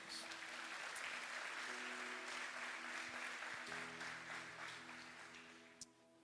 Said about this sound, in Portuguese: Você pode aplaudir a Ele por isso?